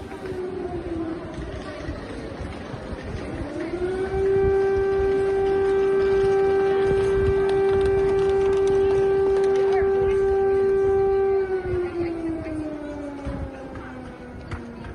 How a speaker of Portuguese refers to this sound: durante a noite é uma cidade com medo, fechada sobre si própria, em que ninguém sai à rua, em que se apagam as luzes e em que se espera para ouvir se há barulho de sirene.